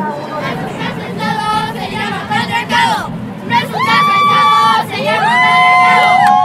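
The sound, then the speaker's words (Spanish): A large outdoor crowd at a protest march fills the air with overlapping voices, shouts and rising cheers, with several sustained high-pitched calls or whistles cutting through the steady roar of many people. “estoy tratando de encontrar al contingente de mamás con el que voy a arrancar la marcha.”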